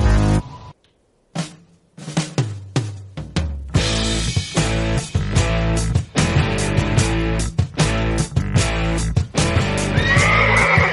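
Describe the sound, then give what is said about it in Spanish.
A horse whinnies and neighs loudly over and over, shrill wavering calls coming in quick bursts after a few short sounds and brief silences at the start, with no one talking. “So, so, se desboca la caballa.”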